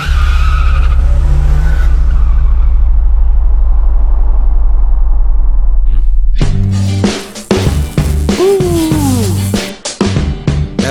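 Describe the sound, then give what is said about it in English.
A car engine rumbles low and steady for several seconds, then bursts into loud revving with screeching tires as the vehicle tears away. No one speaks. “Where's that car? Where was it? gotta hop in that look.”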